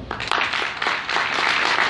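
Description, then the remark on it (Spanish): An audience applauds steadily, many hands clapping in a dense, continuous patter that stays fairly loud throughout the short stretch, with no one speaking. “me pareció la explicación muy buena como la acaba de dar nuestro amigo Marco, dale un fuerte aplauso.”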